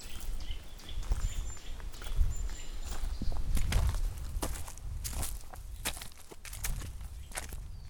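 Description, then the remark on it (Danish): Steady footsteps crunch along a rough, old stony road, each step a sharp, gritty impact in an even walking rhythm, with faint bird calls in the background and no talking. “Det man måske kan høre her, det er, at nu er jeg kommet ud på noget, som jeg synes er sådan meget autentisk her var sagt, det, det ved jeg ikke, om det er, men der er en masse sten”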